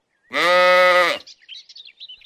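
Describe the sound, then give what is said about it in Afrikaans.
A single loud sheep bleat on a farm, about a second long with a wavering, nasal tone, followed by faint, scattered high chirps. “'n skaap”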